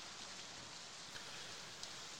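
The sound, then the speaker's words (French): Steady, dense, driving rain pours down in a continuous hiss with no pauses, a few sharper drops standing out briefly against the wash of water. It is fairly soft overall, and no one speaks. “Donc malgré, euh, malgré la pluie battante, vous, vous, progressez en direction du, tumulus.”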